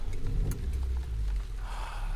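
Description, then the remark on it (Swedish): A car engine starts up and settles into a deep, steady rumble, with a brief click early on and a soft rain-like hiss over the top; the driver has just climbed in and started it. “Jag går bort till bilen, slänger paraplyet på marken, kliver in, startar igång bilen”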